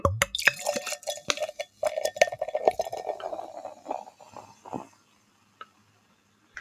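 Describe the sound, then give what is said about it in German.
Beer is poured into a glass for about four seconds, glugging and clinking with a fizzy, crackling foam, then it goes quiet apart from a couple of faint drips. “dir hat man es richtig gehört mit dem Schaum.”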